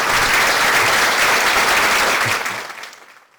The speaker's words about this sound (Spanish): Aquel no aplaude a tiempo.